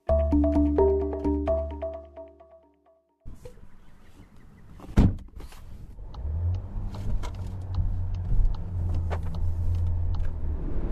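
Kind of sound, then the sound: vehicle, car driving on road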